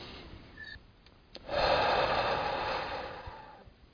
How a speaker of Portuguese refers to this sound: Um peso enorme deixou seu estômago. Pela primeira vez desde que aquilo começou, conseguiu encher o pulmão de ar e respirar fundo.